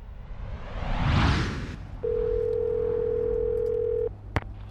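A phone call placed on the way to the station: a swelling whoosh gives way to a steady, unbroken telephone dial tone at a single mid pitch, holding for about two seconds before cutting off, followed by a sharp click.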